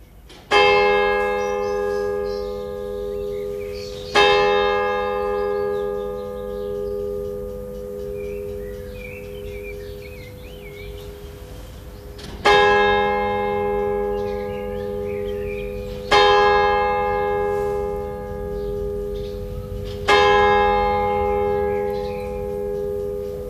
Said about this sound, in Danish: Der er nogen i ejendommen, der er irriteret over kirkeklokkerne. Vi bor lige mellem tre kirker. Jeg synes, det er hyggeligt. Det er rigtig dejligt. Det er sådan et pulsslag. Men, men de er virkelig irriteret over det. Åh, oh, nu ringer de forbandede